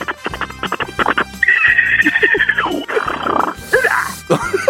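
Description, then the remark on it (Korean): A person imitates a zebra call with their voice in a voice-impression contest on Park Myung-soo's Radio Show: a rapid series of short barking yelps, then a long, high, wavering braying whinny and a few hoarse gasping brays, loud. “얼룩말 소리 한번 내보겠습니다.”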